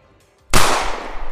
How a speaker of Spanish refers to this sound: Pegas un balazo en el pecho y llega a volar hacia atrás.